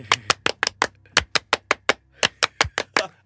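An audience gives a 'French applause', counted in with 'un, deux, trois', to welcome a guest to a studio: about fifteen sharp, crisp claps in a steady rhythm, with a brief pause partway through before the clapping resumes. No one speaks over it.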